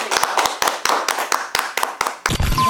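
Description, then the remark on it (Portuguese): A group of people claps together to close a debate session, a dense, uneven patter of sharp hand claps sustained for a couple of seconds, then breaking into a brief burst of voices at the end. “Então, ó, eu vou pedir pra gente encerrar aqui com umas palmas, tá?”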